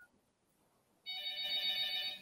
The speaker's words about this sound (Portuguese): Ó. ó, tá tocando o telefone aí.